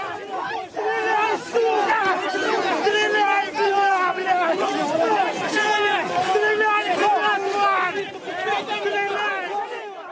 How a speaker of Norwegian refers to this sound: Under mye skrik og skrål blir soldatene feid til side, og det er ingen som gir ordre om å skyte.